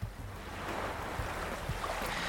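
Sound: ocean waves sleep sound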